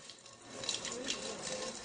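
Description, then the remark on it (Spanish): A steady, splashing stream of cider poured from a height into a glass (escanciar, the Asturian way of serving cider), continuous for a couple of seconds, with a bright, fizzy spatter throughout. “Nosotros lo llamamos escanciar un culín, la sidra o zumo de manzana decantada en su justa medida para que su sabor alcance la plenitud.”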